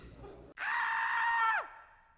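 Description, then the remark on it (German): A single loud, sustained high-pitched scream lasting about a second, ending with a downward-sliding pitch drop, preceded by a brief murmur of background noise. “Den Schrei gibt es auch in 2021.”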